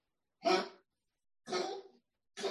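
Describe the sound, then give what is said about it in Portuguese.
A dog coughs and wheezes in three harsh, raspy bursts about a second apart, fairly loud, with silence between them. “Teu cão tem asma?”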